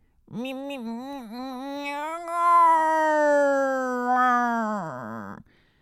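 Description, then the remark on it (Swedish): A single long, drawn-out meow, fairly loud, wavering in pitch before a short rising wail at the end, likely a human voice imitating a cat. “Mjau, mjau.”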